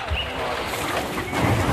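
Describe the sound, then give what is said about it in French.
Quiet water sloshing and lapping gently as a child drowns, a steady low wash with soft splashy texture and no clear voices or cries, the level swelling slightly toward the end. “Ceci est le son d'un enfant qui se noie.”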